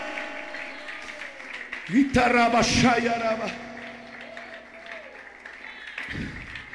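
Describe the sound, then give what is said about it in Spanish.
An audience bursts into applause for the Lord during a morning sermon, mixed with raised, cheering voices that peak early, then settle into steady clapping over a sustained tone before fading out. “Un aplauso al Señor ahora.”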